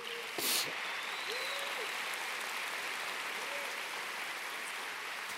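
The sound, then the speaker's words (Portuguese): A Christian church audience applauds for the Lord in a steady, dense wash of clapping that holds at an even level for about five seconds, with a few faint tonal whoops rising and falling over it. “Você pode dar uma salva de palmas para o Senhor?”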